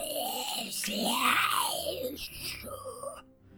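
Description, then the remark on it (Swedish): A voice imitates a creature's hissing growl, a raspy, breathy cry that swells and bends in pitch for about three seconds before cutting off abruptly. “Eh, alltså den, den pratar inte utan den ger ifrån sig det här eh, väsendet som ni hörde innan från varelsen som ni sköt ihjäl innan.”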